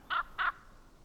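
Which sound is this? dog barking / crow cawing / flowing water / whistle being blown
crow cawing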